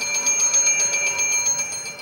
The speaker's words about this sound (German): Eine Glocke bimmelt alarmistisch.